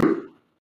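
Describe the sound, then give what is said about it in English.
A single sharp sneeze, a quick burst that fades out within half a second, with no talking around it. “bless you.”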